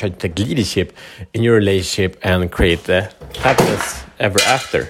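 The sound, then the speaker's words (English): Objects clatter and knock together as a cat climbing a window knocks things over, like dishes or utensils being tipped over, a scattered rattling heard under a person talking steadily throughout. “Anyway, that was a cat climbing a uh, window. It didn't work very well, but she's excited anyway.”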